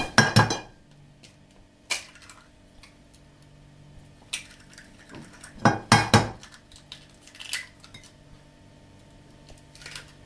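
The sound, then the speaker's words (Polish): Two eggs, rinsed under warm water, are tapped and cracked against the rim of a bowl for breading, with several sharp clinks spread out over a quiet kitchen background and no one speaking. “jajka opłuchczę pod ciepłą wodą i już mogę wbijać obydwa.”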